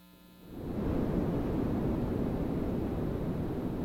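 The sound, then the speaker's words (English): White noise, with equal power across all frequencies, fades in within the first half second, then holds as a steady, loud, even rushing hiss with no variation, rhythm or voices. “Well, white noise, which you're hearing now, has equal power across all frequencies, meaning that you're hearing all of those frequencies equally.”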